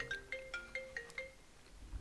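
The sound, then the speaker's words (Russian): A phone ringtone plays a quick, bright melodic pattern of short electronic tones, about six notes repeating at a steady pace before fading, with a low rumble underneath. “Вот зачем вам мне звонит?”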